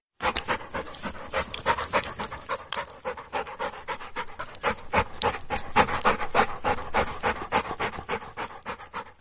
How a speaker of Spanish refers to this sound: Qué extraño, se oyen cosas raras, palpitaciones o como si alguien respirase muy fuerte.